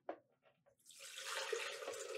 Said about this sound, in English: I'll say them one at a time as we pour them into the blender. So again, that was two cups of unsweetened coffee.